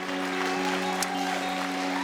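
An audience claps steadily for a couple of seconds, a dense, even wash of applause with a low sustained musical tone humming underneath.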